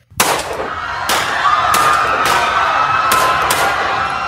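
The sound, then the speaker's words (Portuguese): A gunman fires at students in a school. About six sharp gunshots ring out at irregular intervals, each a loud crack over a constant, dense wash of noise from panicking students and staff. “Ele apontava para a cabeça dos estudantes do sexo feminino e disparava.”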